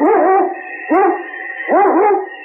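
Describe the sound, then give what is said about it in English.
A sled dog, Yukon King, the lead dog of Sergeant Preston of the Yukon, lets out three loud yelping howls in quick succession, each rising and falling in pitch, with barking edges and no talking. “It's Yukon King, swiftest and strongest lead dog of the Northwest, breaking trail for Sergeant Preston of the Northwest Mounted Police in his relentless pursuit of lawbreakers.”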